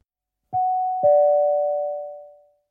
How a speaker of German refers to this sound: Nur noch ein kleiner Hinweis zum Ablauf der Präsentation. Wenn der nachfolgende Ton erklingt, sollte die Präsentationsfolie gewechselt werden.